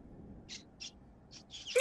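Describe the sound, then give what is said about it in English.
A voice imitates a bird's caw for a bird character that fluffs up and caws at another character: four or five short, raspy bursts spaced about evenly, fairly soft over a low background rumble, with a louder squawk at the very end. “And then looks oh. over at uh, Raven and just caws.”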